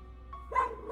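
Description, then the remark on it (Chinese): A single short bark from a dog named Heihu (Black Tiger) as it lunges forward, a quick bright yelp rising out of a low steady background hum, then fading off at the end. “于是我轻轻地在黑虎屁股上拍了拍，黑虎便汪汪地叫着扑了上去。”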